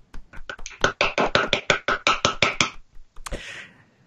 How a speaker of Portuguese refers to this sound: Então, palmas.